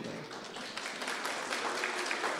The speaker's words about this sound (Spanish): ¿Qué onda chicos? ¿Un aplauso para las chicas o algo así?